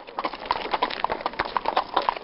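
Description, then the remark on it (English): Horse hooves clip-clop in a quick, steady rhythm as horses follow a track along a river, each hoofbeat landing sharply, with no voices over the continuous clatter. “We've got horses and we follow on the track along the river.”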